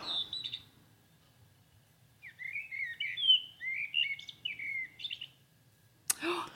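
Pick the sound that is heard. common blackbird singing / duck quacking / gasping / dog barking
common blackbird singing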